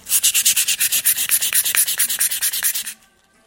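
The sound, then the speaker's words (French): Rapid, steady rubbing of a piece of exotic balsamo wood with glass wool, about five raspy strokes per second, fairly loud for three seconds before stopping abruptly. “Avec un peu de laine de verre.”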